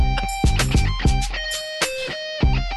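A bright, squeaky sampled electric guitar riff plays within a song, its sustained notes bending over punchy drum hits and a deep bass line, fairly loud.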